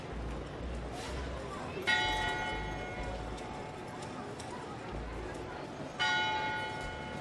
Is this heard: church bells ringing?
yes